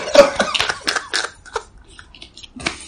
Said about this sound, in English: Ew. I just swallowed my own spit. Over swallowed my own spit.